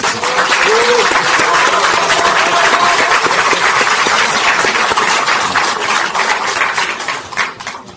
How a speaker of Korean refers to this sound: 점점점 몸이 많이 좋아지셔서 이제는 참 많은 활동을 하시니까 큰 박수 한번 부탁드리겠습니다.